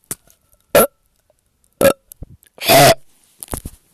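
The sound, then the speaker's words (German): A few short, throaty bursts, then one longer, loud, rumbling burp with a low voiced tone, followed by small gulping sounds. No one speaks. “Ich rübse jetzt.”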